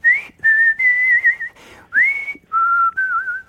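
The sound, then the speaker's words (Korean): A short whistled melody, fairly loud, added over the guitar interlude of a song, moving through several sustained notes with small upward slides and brief gaps between phrases, with no talking. “그냥 기타 간주가 나오는데 저희 휘파람을 거기에 제가 추가해서 부르는”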